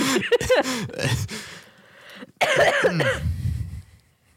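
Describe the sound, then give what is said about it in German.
Several harsh coughs in quick bursts, fairly loud, followed by a throaty, laughing stretch and another cluster of rough coughing sounds. “Hust. Hust.”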